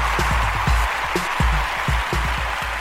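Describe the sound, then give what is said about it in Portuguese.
A round of applause for the staff of game studio CD Project: dense, steady clapping holds at an even loudness for about three seconds, with no voices over it. “Salva de palmas pro pessoal da CD Project.”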